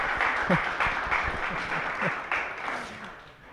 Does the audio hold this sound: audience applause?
yes